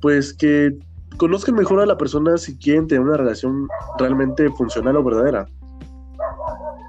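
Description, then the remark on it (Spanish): A neighbor's dog barks repeatedly in the background while a person keeps talking over it; the barking comes in short bursts mixed under the steady speech. “perdón por el perro, mi vecino que está dando”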